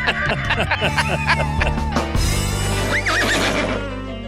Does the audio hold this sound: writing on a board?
no